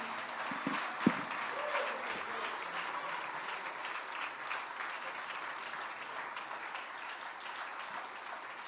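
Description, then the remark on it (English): A church audience applauds steadily to celebrate the goodness of God, many hands clapping in a dense, continuous wash of sound that holds at an even level, with a sharp louder clap early on and no voices. “Would you clap your hands and celebrate the goodness of God for just a moment?”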